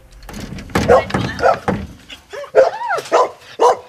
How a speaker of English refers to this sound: Crikey, so many dogs.